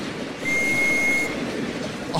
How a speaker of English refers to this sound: Who ordered this goddamn hat for me? Came with a whistle. Hold your ears.